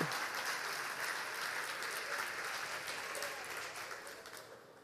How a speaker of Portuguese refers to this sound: Pode bater palmas, irmãs, estão dois, pode bater palmas.